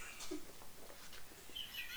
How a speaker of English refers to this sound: Ew, the way you like like fiddled with the paper and it made that noise was really gross to me.